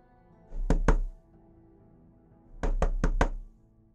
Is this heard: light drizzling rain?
no